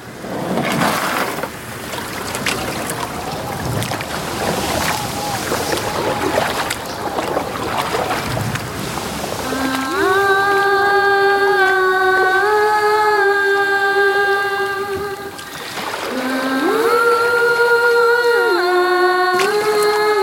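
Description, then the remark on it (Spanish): Oars of a small boat with no motor, rowed by a woman, dip and splash through water in a slow, steady rhythm of strokes, before sustained swelling music rises over the scene and carries on to the end. “Eso no tiene ni motor, no me va a poner a remar por el canal de la mona, ¿verdad?”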